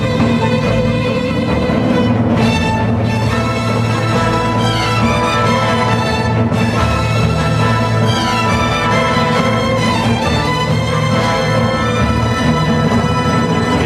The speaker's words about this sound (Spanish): es verdad que quien hizo el arreglo orquestal pensaba en Micro Rosa y en Benur